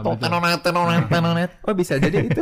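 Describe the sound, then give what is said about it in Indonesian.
A voice mimics a ringing alarm clock with a few repeated, sustained sung tones, loud, then speaks briefly at the end. “Tapi langkah pertama, oh si bunyi alarm itu membuat kita sadar bahwa harusnya kita wake up.”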